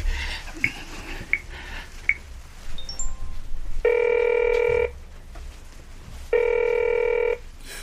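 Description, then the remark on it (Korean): A telephone rings twice, each electronic buzzing ring lasting about a second with a pause between, fairly loud, after a few soft clicks and brief high beeps. “전화 안 받으세요?”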